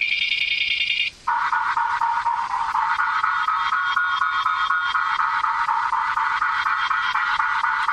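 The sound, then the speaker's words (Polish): Electronic sonar aid tones from a Cassonar device, echoing off a carpet and a table leg: a high steady tone breaks off briefly, then a lower, buzzy tone with a faint rapid pulse holds steadily, with no talking. “tej chwili mamy dźwięki pochodzące i od wykładziny, i od stolika.”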